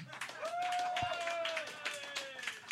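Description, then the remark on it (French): An audience claps in a steady patter of many hands from start to finish, answering by applause a question about how many pots there are in a restaurant, with a voice or whistle-like tone rising above the clapping. “Par applaudissement, il y a combien de chaudrons dans un restaurant?”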